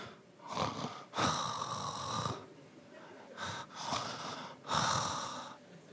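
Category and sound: vocal imitation, voice imitating snoring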